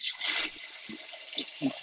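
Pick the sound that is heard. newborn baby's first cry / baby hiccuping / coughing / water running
water running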